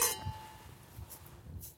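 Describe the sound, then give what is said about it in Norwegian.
Wine glasses of red monastery wine clink together in a toast, a bright chime that rings out and fades, followed by a couple of faint, softer taps. “Så klosterost, klostervin Kan vi si skål?”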